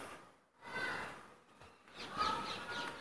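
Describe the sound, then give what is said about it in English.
A parakeet gives harsh, screechy calls in two brief bursts, fairly distant and moderately loud, against a rustling outdoor background. “Oh, there's a parakeet.”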